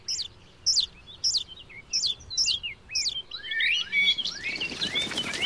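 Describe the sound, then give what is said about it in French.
Blackbird nestlings beg for food with a steady series of thin, high chirps, about one every half second, then break into a denser, overlapping chorus of squeaky calls. Clear, no talking. “Ils sont si petits, si roses, si nus et si bruyants.”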